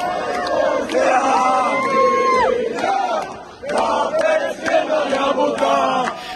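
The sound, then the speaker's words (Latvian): A large crowd of Latvian hockey fans roars and chants in an arena in Tampere, Finland, during the hockey championship, loud and sustained with rising shouts and whistles, a brief dip near the middle before the cheering swells again. “Mediji piesauc arī Latvijas fanus, kas parūpējušies par fantastisku atmosfēru.”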